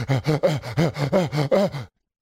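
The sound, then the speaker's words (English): Heavy, exaggerated breathing, about nine quick voiced huffs in a steady rhythm, loud, then stopping abruptly after roughly two seconds, with a groaning, panting quality. “Why are you laughing at the way I'm breathing?”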